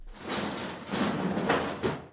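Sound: door opening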